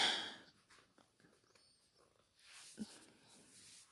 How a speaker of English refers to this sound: Thanks for snorting on set. Sorry about that, folks. Don't worry, the dog is not actually inhaling anything.